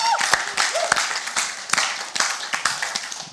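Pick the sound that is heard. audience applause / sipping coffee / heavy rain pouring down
audience applause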